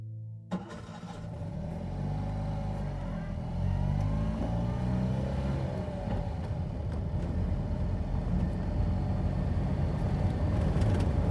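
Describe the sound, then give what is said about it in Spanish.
A car engine starts and then runs steadily, its low rumble swelling as the car accelerates and drives on toward Andorra, fairly loud throughout. “Casi dos años después de los crímenes llego en coche a Andorra”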